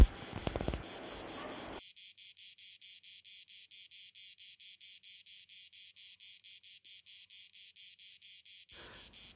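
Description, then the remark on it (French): Cicadas chirp in a loud, steady, high-pitched drone, pulsing rapidly and evenly throughout, with a brief low rumble at the start and nothing else alongside. “À déguster pourquoi pas, à l'ombre d'un mûrier platane, au son des cigales et des glaçons qui s'entrechoquent dans votre verre de citronnade.”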